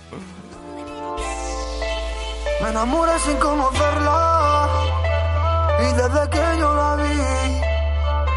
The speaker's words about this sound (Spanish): también ha presentado un nuevo, una nueva canción